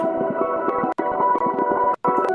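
A dense, sustained processed tone, demonstrating a Spatial and Reverb audio effect, is washed in spacious reverb and plays steadily and fairly loud, broken by two brief dropouts, with no voices present.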